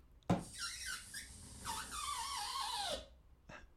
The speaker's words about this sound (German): okay, das war irgendwie so ein Luft, mhm. Luftballon oder.